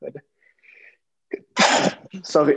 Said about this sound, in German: Gesundheit.